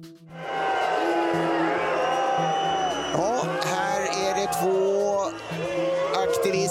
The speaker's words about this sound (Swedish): Ja, så där lät det när några klimataktivister stormade löparbanan precis när herrarna skulle gå i mål i 400 meter häck. Det hördes buarop runt om i publiken på stadion